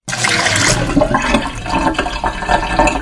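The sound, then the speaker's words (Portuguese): Loud, continuous rushing water fills the whole stretch, a dense churning gush like a flush or strong torrent, steady with no voices present. “E nesse episódio, com muita água, estamos aqui presentes nessa mesa submersa.”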